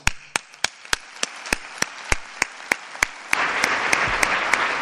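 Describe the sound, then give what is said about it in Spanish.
A theatre stalls audience breaks into its first applause, about half an hour into a cofradía pregón, as the speaker addresses the late Manuel López Pérez: a few steady, evenly spaced claps, then a fuller, continuous wash of many hands, growing louder toward the end. “casi media hora ya de pregón y los primeros aplausos del patio de butacas, en este caso cuando se ha dirigido el pregonero a don Manuel López Pérez, fallecido recientemente.”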